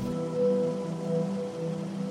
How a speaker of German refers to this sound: Und dann kommt ein Gewitter.